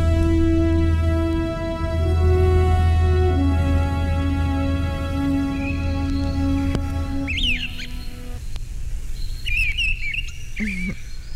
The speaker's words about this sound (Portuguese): é tão bom estar assim, ouvindo os pássaros, vendo as flores e aqui, bem pertinho de você.